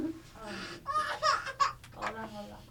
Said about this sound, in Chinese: 婴儿哭了，我先抱一下